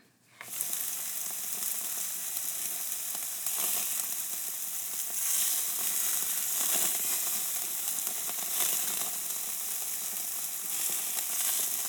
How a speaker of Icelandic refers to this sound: Þarna var verið að grilla